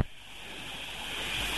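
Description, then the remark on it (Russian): A call from an ordinary telephone drops out into a steady rushing hiss of static, no voice coming through, the noise swelling slightly louder toward the end. “Вы пропадаете все время.”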